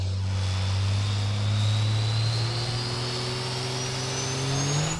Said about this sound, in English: Both both trucks inching towards that first light. Uh, courtesy staging. First light goes up. They got seven seconds now to push into that second light.